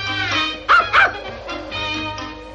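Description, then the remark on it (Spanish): A dog gives two quick barks in a row from inside a sack carried on Obelix's back through a snowy landscape, followed by softer yips and whimpering over a steady, low musical background. “Obelix lleva un saco colgado a la espalda del cual sale un ladrido.”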